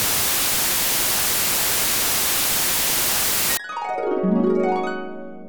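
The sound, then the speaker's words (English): Loud, steady static hiss fills the first three and a half seconds, then cuts off abruptly into a short swelling electronic tone with sweeping harmonics. “You would have heard only static.”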